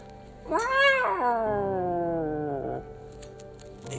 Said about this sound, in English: Hopefully, we don't run into any cats. One, two, one. Oh, fuck, a cat! Whoa!